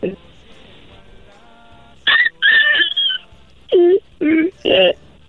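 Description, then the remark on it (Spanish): A person imitates a puppy yelping on request: a few high, whiny cries followed by three short, sharp yelps in quick succession, loud after a quiet start. “¿Puedes hacer el ruido del perrito otra vez?”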